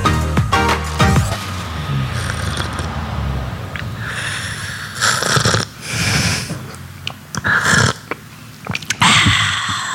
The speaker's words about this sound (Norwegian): Hva med de tre slurpa der?